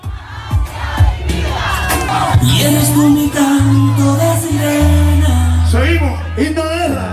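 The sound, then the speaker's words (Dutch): A large crowd of street protesters chants a protest slogan together in loud, rhythmic unison, voices rising and falling in repeated phrases with shouting mixed in, energetic. “dus Patria Vida, vaderland en leven, wordt nu dus ook aangeheven door de betogers”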